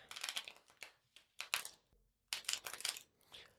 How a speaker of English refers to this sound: I'm shuffling. I'm just going right into it. So just take a moment, settle in. Prepare yourself for some divination. Connect to the cards by listening into the sound of them being shuffled.